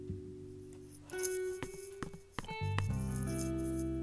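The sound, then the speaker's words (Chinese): A few sharp knocks on a door by someone outside, roughly four evenly spaced raps, sounding over a steady bed of soft, sustained tonal music with no one talking. “嗯，外面有人敲门。”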